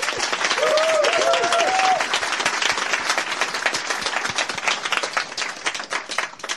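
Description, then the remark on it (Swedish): An audience at Kulturhuset applauds warmly for the host at Serieteket, dense steady clapping that stays loud for several seconds, with a brief high whistle or cheer rising over it early on before the clapping thins slightly. “Vi vill därför först och främst tacka Kulturhuset för att vi har fått vara här den här säsongen och framförallt be er ge en varm applåd till vår värd här i huset,”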